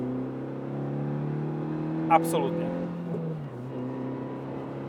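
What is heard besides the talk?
car engine accelerating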